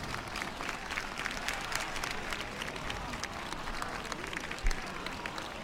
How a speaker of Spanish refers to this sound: directamente sube la, Virgen del Rocío, la rampa del santuario está subiendo en estos momentos, con qué velocidad lo entiendo, con qué velocidad, estas son las palmas que lo prueban, la Virgen está ya en la concha del santuario,